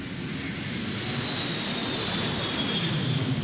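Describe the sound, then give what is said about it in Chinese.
A steady, rushing roar of an airplane passing overhead, heard from a windowsill under a flight path on a typhoon day. A deep rumble sits underneath with a thin high whine drifting across it, holding fairly even throughout with no voices. “在窗台前整理杂物，忽然听到了飞机飞过的声音。”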